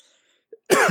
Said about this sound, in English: Sorry, I'm coughing so much into the mic. I think I'm dying.